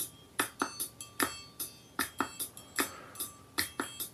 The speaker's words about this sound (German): Und dann käme eben zum Beispiel sowas wie Klatschen dazu oder Schnippen oder hier eine Triangel.